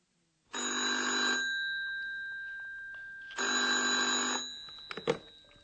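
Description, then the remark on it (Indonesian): A telephone at the reception desk of Hotel Europa rings twice in two long, evenly spaced bursts of bright, buzzing trill, clear, followed by a brief clatter as the handset is picked up. “Sekarang adegan kedua. Percakapan telepon antara Andreas dan Dr. Thurman.”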